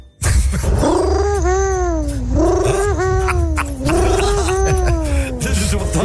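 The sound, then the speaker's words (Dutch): A person imitates an owl call: three long, wavering vocal cries that rise and fall in pitch, delivered loud, one after another with hardly a pause between them. “Dit is het geluid van een partneruil.”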